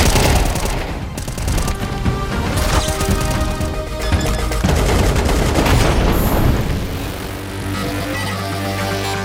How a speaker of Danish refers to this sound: Det er lyden af nyt opdateret Counter-Strike-spil efter 11 år. CS2 hedder det.